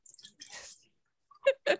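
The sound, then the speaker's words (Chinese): Red wine being poured: a soft, splashy trickle of liquid, a brief pause, then two louder gurgling glugs in quick succession. No one speaks. “这不是尿尿的声音哦，这是红 那个红酒 酒的声音， 声音听起来很奇怪，怎么很像导尿管的感觉？”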